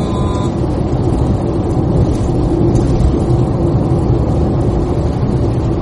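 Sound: car driving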